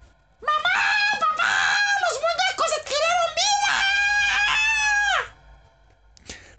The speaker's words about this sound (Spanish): Aterrorizado, el niño soltó un grito alertando a toda su familia.